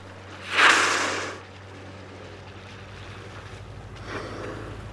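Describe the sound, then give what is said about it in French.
Boat engines hum steadily over rushing wind and sea as several boats pass on open water, with a loud wash of water swelling up early on and a softer surge later. “Il euh, y a pas mal de bateaux, euh, ça ne doit pas perturber les manchots”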